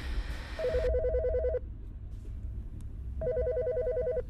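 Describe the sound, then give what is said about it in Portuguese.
A telephone, left unanswered, rings in two bursts of rapid, trilling electronic tones about a second long each, separated by a pause, over a low steady background rumble. “Não vais atender? Agora estou a falar contigo, que deixem mensagem.”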